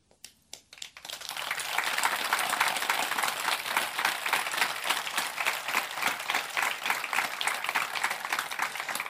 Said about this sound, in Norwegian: Du vet hvordan det er lyd av forskjellige typer applaus? Du vet sånn applaus med latter og applaus Dette var en sånn det var en stor klem. En sånn varm applaus.